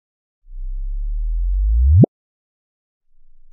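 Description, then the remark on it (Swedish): A low, rising sonified chirp of a gravitational-wave signal from the final milliseconds of two black holes spiraling around each other and merging into one; it sweeps upward in pitch and swells in loudness before cutting off abruptly, followed by silence and the faint start of a second chirp. “Ja, och det var då den sista, de sista skälvande millisekunderna eh, av, av de här två svarta hålens livshistoria när de eh, ja, snurrade runt varandra eh, och sen smälte ihop och blev ett, ett stort svart hål.”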